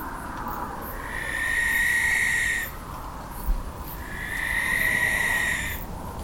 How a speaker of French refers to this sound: et puis le soir, j'ai laissé mon enregistreur et mon micro dehors, sur le rebord de la fenêtre, pour enregistrer toute la nuit. On entend la chouette, la chouette est